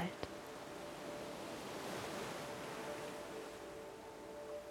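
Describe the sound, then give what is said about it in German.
Gentle sea waves lap softly in a steady, hushed wash, quiet, with a faint low hum beneath and a single small click near the start. “Und sein träge Schwappen flüstert leise in deinen Ohren.”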